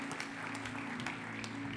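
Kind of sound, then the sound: crowd, audience clapping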